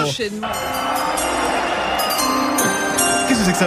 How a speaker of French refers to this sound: ben alors ça c'est un délire, c'est le petit son de cloche avant chaque annonce de joueur.